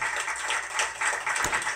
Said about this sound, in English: That's kind of weird because I'm giving myself applause, but whatever.